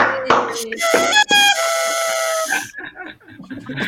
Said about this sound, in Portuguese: A, a micro vuvuzela de 6,90, só que veio 50 por 6,90. Nunca que ia funcionar bem.